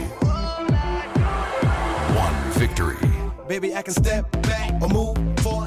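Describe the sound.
A pop song plays loudly, with a steady punchy beat, layered backing music and a lead voice singing over it throughout.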